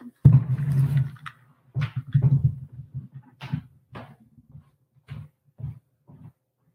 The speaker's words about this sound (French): Il faut que je me mouche. Fait que c'est un autre blooper.